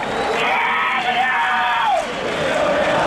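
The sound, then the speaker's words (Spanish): A large stadium crowd at a football match roars and shouts in unison at a player, a loud, sustained wall of chanting voices with rising and falling pitch, steady throughout with no pauses. “¿Qué es lo que le gritan a Semedo?”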